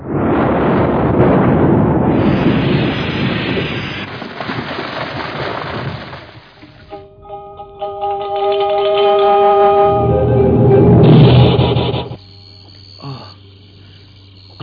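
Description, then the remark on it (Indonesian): A loud, booming blast erupts and rumbles broadly for several seconds, followed by ringing tonal debris and a second swelling roar before fading into a low hum. “Aku seperti mendengar suara ledakan keras dari arah sana datangnya.”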